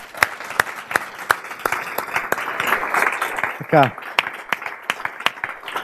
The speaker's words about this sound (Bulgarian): Моля вашите аплодисменти